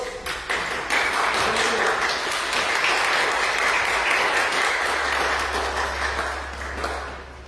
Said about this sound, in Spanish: Póngase de pie, por favor, y denle un fuerte aplauso a nuestro Dios.